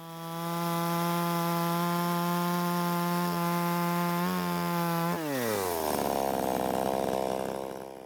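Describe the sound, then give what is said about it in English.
A chainsaw runs at a steady high whine, then bogs down and drops in pitch as it bites into wood, grinding loudly with no one speaking. “A freshly sharpened and oiled chain goes through solid wood like butter, and, as my mum has impressed upon me all too often, even quicker through your leg.”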